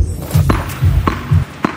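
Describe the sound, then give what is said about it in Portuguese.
A tennis ball being struck: three crisp, hollow pops at a steady, even pace, each separated by a soft low thud, with no voices present. “Este é o som de uma bola de ténis a bater.”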